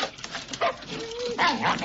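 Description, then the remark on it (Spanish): A dog named Eduard barks in two short, sharp bursts with a faint whine in between, moderately loud over a light background hiss. “Es normal que Eduard ladre así.”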